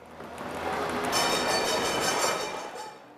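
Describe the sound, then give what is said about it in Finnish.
A tram in Istanbul rumbles past along its old route, a steady metallic rolling noise with faint rail squeal that swells and then eases off over a few seconds. “Ratikka kulkee vanhaa reittiään.”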